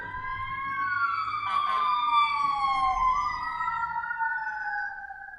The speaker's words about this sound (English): Oh wait, I think I have to pause here because I hear sirens coming. It'll get loud.